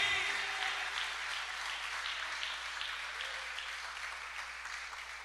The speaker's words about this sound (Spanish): Démosle un aplauso al Espíritu Santo.